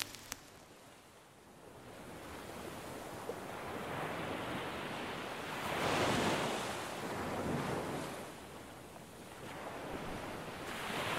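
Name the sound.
waves and wind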